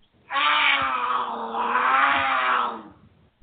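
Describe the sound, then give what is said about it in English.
A single loud, drawn-out cougar growl, raspy and yowling, holds steady for a couple of seconds before trailing off, with no other sounds around it. “Do you have cougars on your porch swing?”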